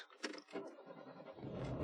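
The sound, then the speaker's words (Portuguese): The engine of a 2004 car cranks with a few uneven, sputtering turns, then catches and settles into a steady low rumble, with no one speaking. “ah, ele demora três vezes, mas ele pega, ó.”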